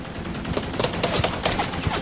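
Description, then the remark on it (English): Rapid, repeated gunshots crackle in a continuous burst, a loud volley of sharp cracks fired in quick, slightly uneven succession, like automatic gunfire. “Have car music on in background, then gunshots, grenade when I stare, and someone shouting crab.”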